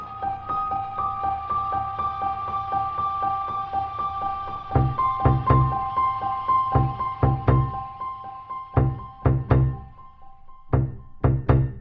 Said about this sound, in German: Der Sound, den wir da hören, das ist eine tiefe Flügelnote, die halt gedämpft ist mit Stimmkeilen. Es gibt ja von Klavierstimmern diese Filzkeile und die stecke ich sozusagen zwischen zwei Seiten.